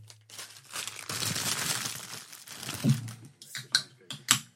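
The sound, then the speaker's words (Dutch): A stroopwafel snack wrapper crinkles, a dense rustle for a couple of seconds, then a few sharp, separate crackles as the plastic is handled. A low steady hum sits underneath, with no talking. “mag ik dan nog een stroopwafeltje?”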